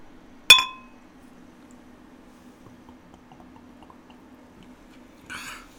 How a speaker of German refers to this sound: Okay, wollen wir hm. anstoßen? Ja, ach ja. Und auch einen Schluck trinken dann?